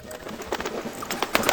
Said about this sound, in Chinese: 一只大鸟降落在草地上，它在寻找午餐。是吃一条大肥虫呢，还是吃一个小小的女巫和一只非常非常小的黑猫？